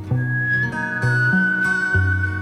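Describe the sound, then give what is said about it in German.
A professional Australian whistler performs a clear, sustained whistled melody over warm instrumental backing whose low notes change every second or so. No voices, steady and fairly loud throughout. “Heute veröffentlicht die Australierin …, professionelle Pfeiferin, ihr Album …”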